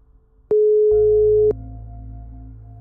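A single steady telephone ringback tone sounds for about a second while placing a phone call, clicking on and off, then gives way to a low, quiet hum on the line.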